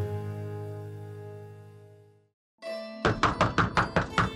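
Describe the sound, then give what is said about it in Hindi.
In an audio story, a woman knocks on her sister-in-law's door: a steady, quick series of about seven loud knocks, evenly spaced, following a sustained musical tone that fades into a brief silence. “दरवाजे पर नॉक करती उर्वशी अपनी लाडली भाभी को आवाज लगाती है”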